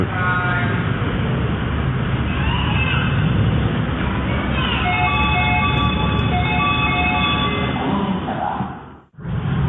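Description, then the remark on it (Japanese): A maglev train glides slowly in and slows to a stop, surprisingly quiet, its steady rumble overlaid with high electric whining tones that shift as it decelerates, ending in a brief hush. “お意外と静かですねそろそろ止まりますこれから乗り込んでみます”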